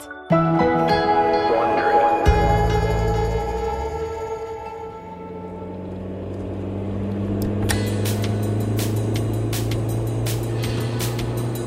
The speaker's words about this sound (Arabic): إنه سبتمبر عام 1970 تسرع سيارة شيفرولي إمبالا على الطريق السريع وسط ولاية أوكلاهوما متجهة نحو الغرب